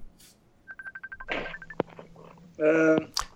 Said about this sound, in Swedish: nu ringer de på chatten här.